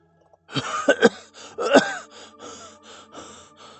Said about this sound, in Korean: 제가 기침을 해댔습니다.